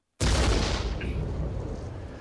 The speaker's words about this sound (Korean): 갑자기 상가 폭발 사고가 일어나더니 아리영의 엄마가 돌아가십니다